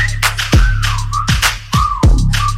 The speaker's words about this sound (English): Damn that ass fat, had to whistle like.